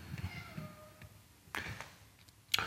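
A cat meows once in the background, a faint, drawn-out tonal cry lasting under a second, followed by a couple of short, sharp noise bursts.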